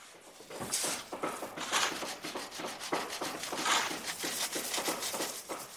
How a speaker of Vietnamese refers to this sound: Nhìn thấy đống xi măng trộn này sẽ biến thành ngôi nhà với hàng trăm ô cửa như tổ ong, những âm thanh đục đẽo của bạn bè xung quanh tạo ra công trình kiến trúc vĩ đại nhiều tầng.